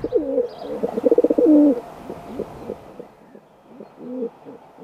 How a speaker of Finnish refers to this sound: Ohjelma taustaääneksi olisi voinut sopia kuhankeittäjä huilu, tikli, tiiro ja huudot, mutta valitsin Ulnerin linnuksi kesykyyhkyn.